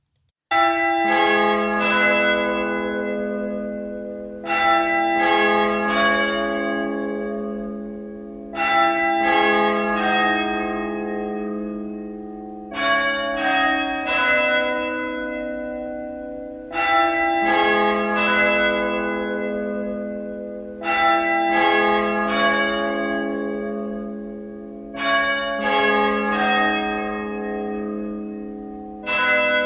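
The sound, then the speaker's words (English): Loud church bells ring as a phone ringtone, in repeating bursts of several struck tones, each cluster swelling and decaying before the next begins, looping steadily with no voices. “Here is the Big Bells ringtone.”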